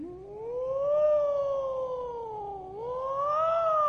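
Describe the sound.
A person's voice imitates an ambulance siren: one sustained, fairly loud wail that rises slowly, dips briefly near the end, then swoops back up, heard alone.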